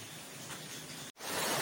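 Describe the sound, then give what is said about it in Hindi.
Heavy rain falls steadily outside, a dense, continuous hiss with no voices, briefly cutting out for a split second before resuming just as loud. “बारिश की एक्चुअली आप आवाज़ जो है ना वो अच्छे से सुन सकते हैं कल भी ऐसा ही हुआ था आज भी ऐसा ही हुआ है और आगे भी दो तीन दिनों तक ऐसा ही होगा”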